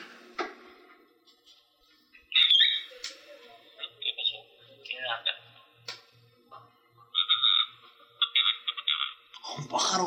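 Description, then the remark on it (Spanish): Birds squawk and chirp in repeated bright, scratchy, loud bursts, with short pauses between calls and a faint steady ticking underneath. “¿Te estoy escuchando los pájaros?”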